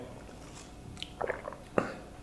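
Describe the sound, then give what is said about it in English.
A quiet sip of coffee with Silk dairy-free soy creamer: a few soft wet mouth clicks, then one brief slurping sip, with no talking. “Um, okay, I'm gonna take a sip of this.”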